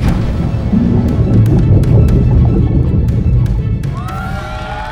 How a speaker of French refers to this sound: Des cris de joie retentissent à Houston le centre de contrôle s'applaudit et se félicite de cette réussite. L'équipage d'Apollo 13 est revenu sain et sauf sur Terre.